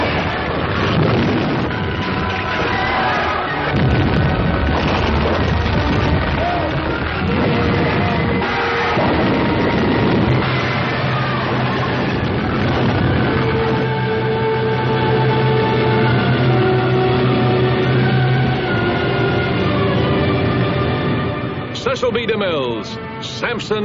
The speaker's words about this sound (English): Here is the most spectacular scene of destruction ever filmed. Samson using his incredible strength to bring down the Temple of Dagon in crashing ruins.